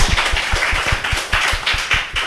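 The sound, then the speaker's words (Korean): A small group claps steadily for a couple of seconds, a quick run of overlapping hand claps with no voices. “네, 그럼- 박수 한번 주십시오.”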